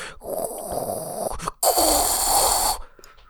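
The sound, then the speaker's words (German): A voice imitates a coffee machine brewing coffee with two long, loud, hissing and gurgling bursts separated by a brief pause, with no words spoken. “aber ist das Ding, ist das Ding denn permanent laut oder ist es eher so dieses Nur typische, dieses typische”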